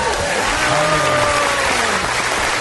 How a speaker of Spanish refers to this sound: cantidad de aplausos. Bienvenido a Bla Bla Blue, señor. Me gusta, me gusta porque se aplauden ustedes mismos, se aplauden entre ustedes, aplauden al invitado.